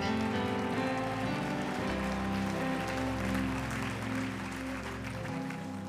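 An audience claps their hands in praise to God for the ministers, a dense, steady wash of applause, continuous for several seconds, with sustained keyboard chords playing underneath and no one speaking.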